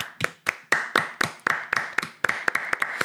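Applause from a small group for the event's organizer, a quick run of sharp claps at an uneven, fairly brisk pace, moderately loud and with no one talking over it.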